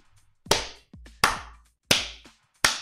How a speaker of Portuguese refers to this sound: Peraí, peraí, peraí, tem as palmas de efeito, eu não preciso bater palma na vida real.